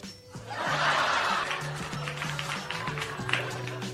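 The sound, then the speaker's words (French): A sitcom's canned laughter track swells up from a studio audience, a loud, dense burst of group laughing and snickering that rolls on for several seconds before slowly thinning out. “voilà, ce genre de rires qui sont euh, très euh, présents dans les différentes sitcoms,”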